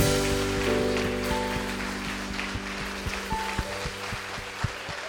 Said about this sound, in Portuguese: Você pode aplaudir ao Senhor mais uma vez.